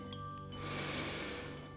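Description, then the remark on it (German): A deep, breathy snort as an animal draws in a long breath, a broad hissing rush that swells and then eases off, with no voices present. “Der Flick schnauft tief ein”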